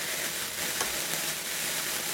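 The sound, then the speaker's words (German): A sparkler lit for New Year fizzes with a steady, hissing crackle, bright and continuous for a couple of seconds with tiny pops scattered through it, and no voices. “Das ist eine Wunderkerze. Die macht auch super tolle Feuerwerke in alle Richtungen.”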